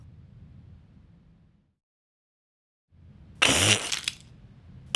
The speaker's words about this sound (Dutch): Het zal nu niet lang meer duren en dan wordt onze dino geboren. Dan kraakt het ei heel hard en dan.